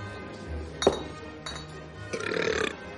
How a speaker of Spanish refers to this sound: Y como primero no tenía hambre, pero sí sed, y segundo todo era gratis, debí beberme como unos 15 refrescos. Bebe, luego eructa.